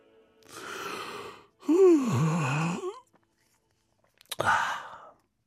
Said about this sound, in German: … gähnt schon wieder. Doch zum Schlafen hat er keine Zeit.